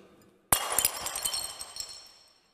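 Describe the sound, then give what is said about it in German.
Glass breaks with a sudden loud crash, followed by a couple of seconds of tinkling, clinking shards scattering and settling before fading out. No voices are heard. “Scherben.”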